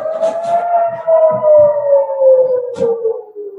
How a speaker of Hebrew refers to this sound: או, הנה אזעקה, שנייה.